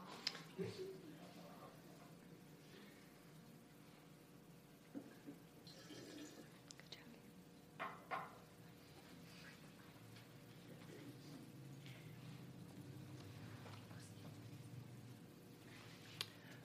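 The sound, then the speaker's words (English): Water is poured steadily into a container, a soft continuous trickle and splash with a few small clinks, fairly quiet amid a faint murmur. “and so she's going to add water to represent our family bonding time that we hadn't had because I was working on my master's.”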